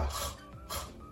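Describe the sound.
Two short, breathy rasping bursts from a voice demonstrating the French R sound, as in the French word for art: a throaty, gargle-like friction sounded alone, fairly soft, with a brief pause between them.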